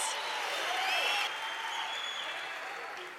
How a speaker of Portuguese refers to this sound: Aleluia! Aplauda o Senhor Jesus.